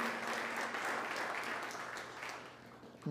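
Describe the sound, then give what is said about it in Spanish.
An audience applauds the Lord in a dense, steady wash of clapping that holds for about three seconds and eases slightly, before a low sustained musical tone cuts in at the very end. “Démosle ese aplauso bien, bien fuerte al Señor.”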